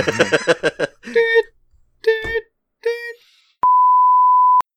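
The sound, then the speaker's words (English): A few short voiced sounds from people come first, then a single loud, steady electronic beep rings out alone for about a second, beginning and ending abruptly, as a recording begins. “Beep.”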